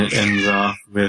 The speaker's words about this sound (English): I thought that was my cat for a minute. I'm like, um. nope, that was my cat. Sorry.